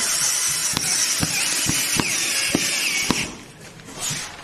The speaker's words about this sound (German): Herr Weller setzt gerade nochmal die Bohrmaschine an.